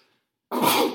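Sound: sneeze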